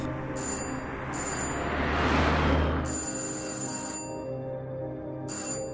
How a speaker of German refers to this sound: Die Polizei macht sich dann auch direkt auf den Weg zu ihr. Als die Einsatzkräfte klingeln, macht aber keiner auf.